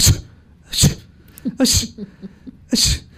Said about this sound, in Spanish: Y entonces usted estornuda cuatro, cinco, seis, siete veces.